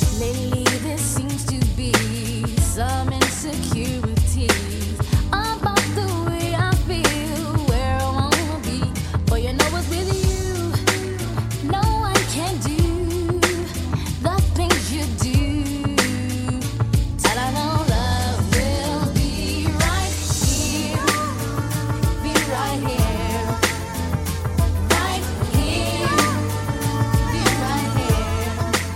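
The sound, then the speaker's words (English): An upbeat 1992 R&B track, a remix version from the movie Free Willy, plays continuously at full volume, with a steady bass groove, rhythmic percussion hits, and layered vocal harmonies over a smooth remix beat. “By the way, what you just heard is not the original version.”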